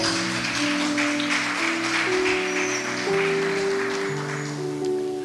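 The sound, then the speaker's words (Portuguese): A standing church audience applauds the Lord steadily for about five seconds, a dense, even wash of clapping over sustained keyboard chords that shift slowly underneath. No one speaks. “Pode aplaudir o Senhor.”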